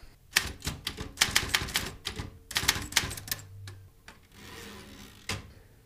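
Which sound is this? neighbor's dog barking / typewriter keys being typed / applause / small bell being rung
typewriter keys being typed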